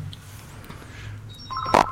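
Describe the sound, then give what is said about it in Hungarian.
Near the end, a short electronic phone-line tone sounds as another caller's call connects, with steady beeping pitches and a brief louder click-like burst over a low background hum. No one speaks. “Hogy megéreztem, hogy jön még egy telefonáló?”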